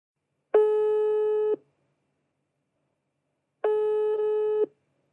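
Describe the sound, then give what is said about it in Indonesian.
Two steady electronic ringback tones as a phone call is placed to a member of a psychology team, each about a second long with a pause of roughly two seconds between them, a buzzy mid-pitched phone ring with no talking. “Nah, sekarang Jeng, aku tuh mau telepon salah satu core dari psikologi di sini.”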